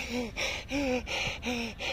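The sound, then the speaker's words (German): A voice imitates the breathing that starts when stepping into a cold shower: three sharp, breathy gasps in quick rhythm, each a short voiced intake of air, fairly loud with no other talking. “Und da, das kennt wahrscheinlich eigentlich jeder, wenn man, wenn man in eine kalte Dusche geht. dann fängt die Atmung.”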